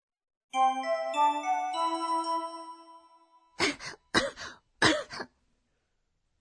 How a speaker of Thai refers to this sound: どうしましたか咳が出ます熱も37.8度あります